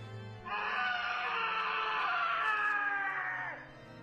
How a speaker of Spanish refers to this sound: En medio de la confusión, el campesino profirió un grito desgarrador.